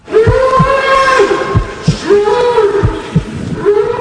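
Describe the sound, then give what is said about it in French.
Long, drawn-out harmonic bellows from a bull being slaughtered in a spectacle, rising and falling in pitch, repeated several times over a low rumbling background with intermittent thuds. “Derrière ces cris, un taureau qui se fait massacrer pour le plaisir de quelques personnes.”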